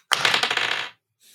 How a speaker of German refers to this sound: Und los. ich würfel